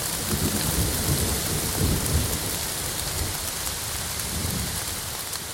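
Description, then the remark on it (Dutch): Heavy rain pours down in a steady, dense hiss, so hard that people a metre apart could no longer see each other, like standing under a waterfall, with deep rumbles of thunder rolling underneath, swelling around the middle and again near the end. No one speaks. “Dus ik eh, ga en al snel begint het eigenlijk immens hard te regenen.”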